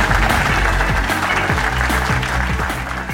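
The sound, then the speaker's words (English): A large theatre audience applauds loudly and steadily, a dense wash of clapping that stays strong throughout and eases only slightly toward the end. “give a massive round of applause to Hal Cruttenden”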